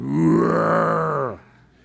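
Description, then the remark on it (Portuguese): A man's voice imitates a lion roar: one loud, deep, sustained growl lasting over a second, steady in pitch, then cutting off abruptly into quiet. “O cara rugiu desse jeito, chegou aqui, ele falou, mas ele está longe, está quilômetros daqui.”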